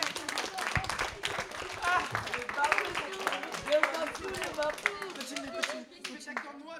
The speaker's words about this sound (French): Applaudissez-les s'il vous plaît.